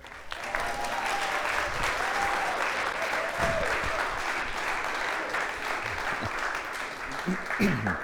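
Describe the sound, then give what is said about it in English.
Sustained audience applause for a guest speaker coming up to speak, a dense wash of many hands clapping at a steady level for several seconds, with faint indistinct voices mixed underneath. “And so if you guys wouldn't mind just giving him a round of applause as he comes up, that would be fantastic.”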